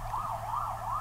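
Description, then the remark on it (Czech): An ambulance drives past with its siren wailing steadily, rising and falling in a quick repeating cycle about three times, fairly loud over a low traffic rumble, with no voices. “Slyšíte tu sanitku, která jede kolem nás?”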